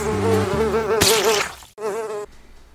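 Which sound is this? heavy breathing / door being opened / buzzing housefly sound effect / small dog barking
buzzing housefly sound effect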